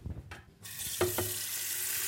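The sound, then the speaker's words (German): A tap starts running with a steady, bright rush of water into a sink as a woman makes herself tea in an emergency shelter for women, with a couple of light clinks of a cup or kettle early on. “Gerade kocht sich eine Frau noch einen Tee.”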